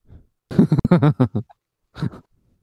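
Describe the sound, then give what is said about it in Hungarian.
A person imitates a 76-kilogram cow mooing, producing a string of short, loud, voiced lowing sounds followed by a brief pause and one more shorter moo. “Tehát, hogy akkor pont, pont, mit tudom én, nem tudom hány kilónál bők, mert, mert tehén, és akkor hozzám mondja, hogy 76 kilós tehén, így bőg.”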